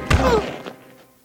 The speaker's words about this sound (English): He hit the ground with a hard thud.